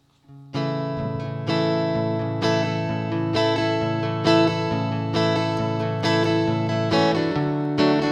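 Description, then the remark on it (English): Acoustic guitar played live, strumming full chords in a slow, steady rhythm as a song's opening. It sounds moderately loud, with each chord ringing into the next and no voices. “Suppose you, do you want me to play something?”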